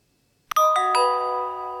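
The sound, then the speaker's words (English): A computer timer set with the keystroke Alt Control Windows F6 runs out after silence: a soft click, then three quick bell-like notes that stack into a bright, sustained chord and ring out slowly, with no talking. “When prompted, you can enter an alarm time.”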